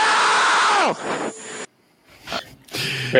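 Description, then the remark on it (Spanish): Heavy, ragged breathing comes in loud, noisy gusts into the mic, following a sharp vocal cry that falls away, with a brief pause before the breaths resume. “No sé, no sé qué me da más miedo, si esa respiración o el no final, ¿eh?”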